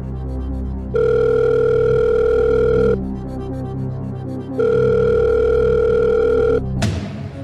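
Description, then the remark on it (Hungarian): A telephone ringback tone sounds twice as a phone call is placed, each steady electronic buzz lasting about two seconds with a pause between, over a low background hum, ending with a sharp click as the line picks up. “Akkor ö, szeretném a telefonos segítséget kérni.”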